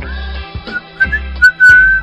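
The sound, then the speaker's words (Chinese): A bright, clear whistled melody with several held notes and short glides, loud and alone, with a low rumbling backing sound pulsing underneath, as mice characters in a story whistle while building their house. “他们吹起口哨，唱起了歌。”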